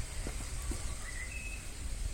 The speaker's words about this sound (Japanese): 練習ですねあの新人ウグイスの練習のようですもっと泣いてくんないかな